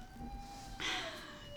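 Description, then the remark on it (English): A dog whines in a long, thin, high-pitched tone that dips slightly in pitch, with a brief breathy huff partway through. Fairly quiet, with no one talking. “Charlie! That is my dog.”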